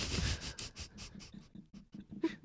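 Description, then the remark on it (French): Scraping and creaking sounds in quick irregular bursts as a wine bottle is being opened, with no one talking. “Le petit background en audio, c'est parce que j'ouvre la bouteille de vin.”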